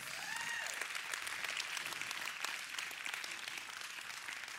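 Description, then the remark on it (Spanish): An audience applauds steadily, a dense wash of many hands clapping at once, sustained and fairly loud throughout, with faint voices rising briefly underneath. “Vamos, dáselo fuerte.”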